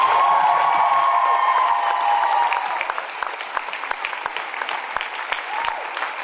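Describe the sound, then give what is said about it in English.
An audience at a cosplay competition claps steadily for the cosplay competitors after their runway. A dense wash of applause, with a sustained cheer or whoop over the first couple of seconds, thins into scattered individual claps toward the end. “Give them a round of applause, ladies and gentlemen.”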